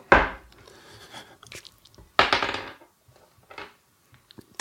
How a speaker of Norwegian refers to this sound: Jeg skal kaste terning.